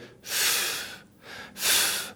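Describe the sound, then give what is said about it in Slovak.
Two long, airy breaths, a slow inhale followed by a fuller exhale, a deliberate calming zen breath taken alone with no talking. “to zenové dýchanie”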